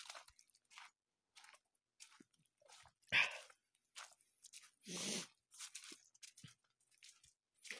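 Wet mouth sounds of someone sipping hot cocoa: scattered clicks and smacks, then a longer, louder slurp near the middle, with quiet pauses between sips and no talking.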